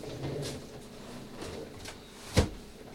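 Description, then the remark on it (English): A window slides along its track with a low rumbling scrape, then shuts with one sharp, solid clunk. No one speaks. “would you mind just doing me a massive favor and just closing these windows for me real quick?”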